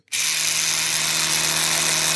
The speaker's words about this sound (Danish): Og i dag i studiet, der har jeg taget min øh, Oral-B el-tandbørste med.